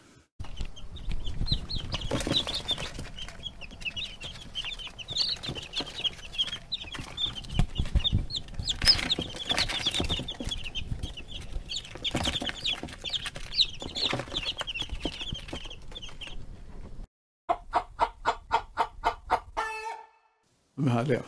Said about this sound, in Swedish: Vi skulle, man, skulle, man kan ju inte lyssna sig, lyssna sig mätt på de här små kycklingarna.